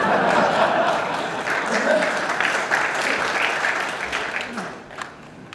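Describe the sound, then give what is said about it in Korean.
Sustained applause from a large audience, a dense wash of many hands clapping that stays loud for several seconds before thinning out slightly near the end, with some crowd murmur mixed in. “한 분 박수 치시기 박수 주셔야 니다”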